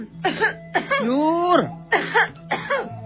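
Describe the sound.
A person sneezes and coughs without a mask onto vegetables and food, in a run of four loud, throaty bursts, some drawn out with a voiced, groaning pitch that slides downward, over a faint steady hum.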